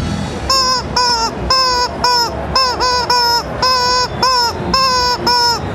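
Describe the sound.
A voice imitates a toucan's cry: about ten loud, nasal, honking calls in quick, uneven bursts, with no other talking.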